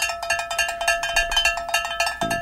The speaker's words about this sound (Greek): Να μαζέψουμε τα κουδούνια μα από εδώ πέρα.